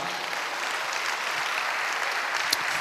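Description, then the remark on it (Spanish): An audience at a church worship service claps steadily and densely in applause for Christ, a continuous wash of many hands applauding at moderate loudness with no pauses. “Dale un aplauso a Cristo, amado hermano.”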